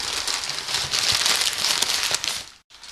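A cardboard box sent by post being opened for an unboxing: a steady, dense scratchy rustle of cardboard and packaging with small crackles and clicks, briefly cutting out near the end before resuming. No one speaks.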